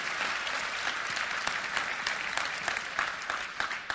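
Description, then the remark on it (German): Steady applause from an audience, a dense patter of many hands clapping at even loudness throughout, with a few sharper claps standing out and no voices on top. “So, der Jans Programm ist mal ein Applaus, ganz genau.”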